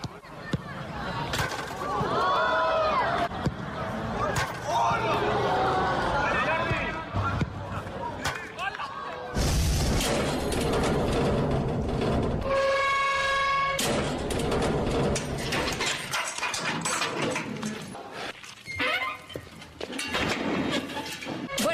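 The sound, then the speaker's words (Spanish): A prison cell door closes with loud, heavy metallic clanks and slams, followed by a sustained ringing resonance. Muffled voices and continuous noise run underneath. “Eh, estamos escuchando cómo cierra una celda de una cárcel”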